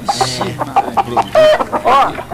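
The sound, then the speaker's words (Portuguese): A chicken clucks in a quick run of short, choppy calls, a few stretching into drawn-out squawks, loud with no talking over it. “Rapaz, eu vou comprar uma galinha.”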